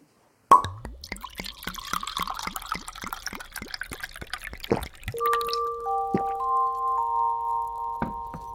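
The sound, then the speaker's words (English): Wine glugs out of a bottle into a glass in a quick run of rhythmic gurgles for about four seconds, then stops, leaving a few soft clinks and a faint ringing tone from the glass. “I can have a glass of wine.”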